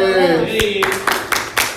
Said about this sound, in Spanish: Aplauso.